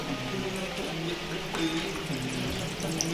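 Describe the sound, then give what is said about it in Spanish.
Steady, dense rain pours down in a continuous wash of hiss and splatter, holding at an even level throughout with a faint low hum running beneath it. “Por favor, no dejes de llover hasta que no limpie esta suciedad insoportable de mi cuerpo y mi alma.”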